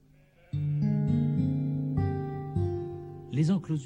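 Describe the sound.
A sheep lets out one long, wavering bleat, loud, its pitch stepping and quavering for nearly three seconds before a voice briefly begins speaking at the end.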